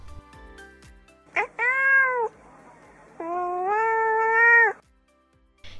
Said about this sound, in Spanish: Y este maullido que acaban de escuchar quiere decir que la traducción que acabo de hacerles es correcta